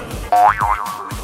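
A springy cartoon boing effect: a bright tone that wobbles up and down in pitch several times, loud, with no one speaking.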